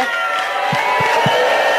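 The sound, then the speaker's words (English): A large crowd of ANC delegates at the party's two-day provincial conference in the Free State applauds and cheers as the provincial chairperson is declared, in a dense, continuous roar, with a few low thumps sounding at a steady beat beneath the noise. “A resounding applause from the ANC delegates who attended the party's two-day provincial conference in the Free State.”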